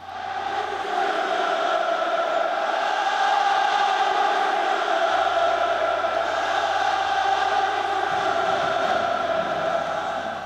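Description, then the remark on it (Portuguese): A huge crowd of Tottenham football fans at Wembley Stadium sings together in a steady, sustained chant, a thick wash of massed voices holding loud and even for about ten seconds without a break. “E vamos dar um sobe som em homenagem ao Tottenham, direto lá de Wembley, da torcida cantando um pouquinho.”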